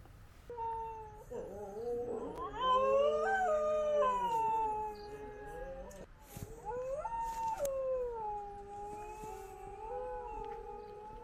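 A dog howls in long, wavering cries that rise and fall in pitch, two drawn-out howls with a brief break between, fairly loud, with no talking.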